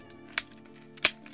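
Two sharp, dry cracks of a thin twig snapping underfoot, about two-thirds of a second apart. The second is a little louder, over a faint steady hum.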